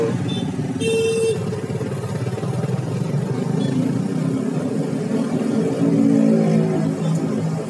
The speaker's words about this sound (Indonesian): ada mobil ada mobil